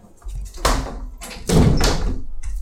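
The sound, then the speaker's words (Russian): A window is pushed shut as rain begins, with a few heavy clunks and rattling thuds in quick succession, fairly loud, over a steady low background rush. “Дождь начался. О. Закрыл все.”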